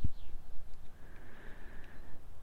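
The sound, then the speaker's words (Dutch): Faint birdsong outdoors from pigeons and small birds on a fine, cold, sunny day: a brief chirp, then a thin sustained call drifting over a low rumble of open-air background noise. No one speaks. “Dus misschien kun je ze nog een klein beetje horen. De duiven in ieder geval.”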